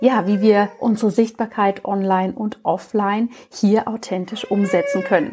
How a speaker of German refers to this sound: Du hörst vielleicht meine kleine Tochter im Hintergrund, die schaltet sich da auch gerade ein.